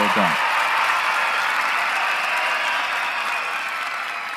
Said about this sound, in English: That was the, that was the uh, studio audience applauding Hercules.